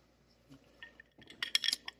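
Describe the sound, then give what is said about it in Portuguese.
Ice clinks against a glass of coffee liqueur in a quick cluster of bright taps near the end, after a few softer knocks and a quiet stretch. No one speaks. “O barulhinho do gelo indica que a gente está tomando um licor de café agora.”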